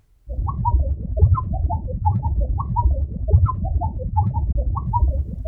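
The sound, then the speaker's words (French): Whale song played back at high speed, turning into a steady stream of quick, warbling, bird-like chirps over a dense low rumble, continuous and fairly loud with no talking. “Mais si on écoute plus attentivement le chant de la baleine, Et si on accélère le son,”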